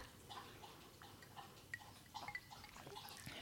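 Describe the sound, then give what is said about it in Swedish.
Quiet sipping of a gin and tonic made with a Linnells orange and clove spice gin, as two people each take a sip on a sofa: a few small wet slurps and liquid clicks scattered over a few seconds, with faint fizzing between them and no talking. “Ja, Vi har en ny smak på GT här som vi kan se. Vi kan göra en live-recension. Ja, visst. Ska vi ta varsin slurk?”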